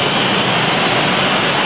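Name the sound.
stadium crowd noise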